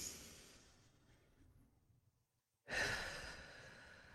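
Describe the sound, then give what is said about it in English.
A long, airy inhale that gradually fades, a brief pause of near silence, then a forceful exhale rushing out like a heavy sigh. No talking. “you're not taking any time to like do some deep breathing exercises every day.”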